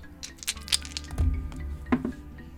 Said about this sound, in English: Okay, roll some dice.